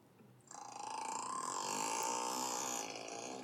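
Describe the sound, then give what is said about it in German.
Orca vocalizations played back from a recording clicked in an online search result: a sustained, tonal whistling call with sweeping harmonic bands, starting abruptly and holding steady for about three seconds with no talking. “Hast du gerade Orca-Geräusche angeklickt?”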